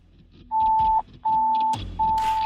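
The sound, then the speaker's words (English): Three loud, steady, high-pitched fire dispatch alert tones, each lasting about half a second with brief gaps between them, sounding over a low background rumble. “I'll have Ryan drop the tones and drop them”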